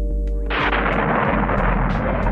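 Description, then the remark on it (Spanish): An explosion sound effect depicting the Big Bang: a brief low droning hum is cut off by a loud explosion, which swells into a sustained roar and rumble with deep bass that continues without fading. “Caramba, pues es así que fue una gran explosión.”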